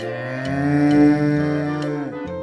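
A cow gives one long, drawn-out moo that holds steady for a couple of seconds, loud, with a few faint clicks in the background.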